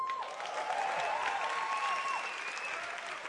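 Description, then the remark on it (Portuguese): An audience breaks into sustained applause welcoming a pastor from Ceará, a dense wash of many hands clapping at once, steady and fairly loud throughout, with a few faint whistles or cheers rising above it. “Cadê a salva de palmas?”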